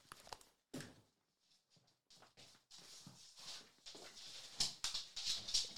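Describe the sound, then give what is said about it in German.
A dog whimpers softly as it is about to be let outside, mixed with a run of clicking, shuffling movement sounds like paws on a hard floor that grow busier toward the end; no one speaks. “Ich muss mir mal gerade kurz hier was zu trinken holen und den Hund mal rausschmeißen. Der fiebst hier.”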